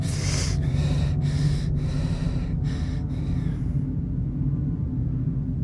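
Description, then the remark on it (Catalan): Heavy, deep breaths drawn in and pushed out, about five airy bursts in quick succession over a steady low hum, then only the hum remains. “Faig respiracions profundes.”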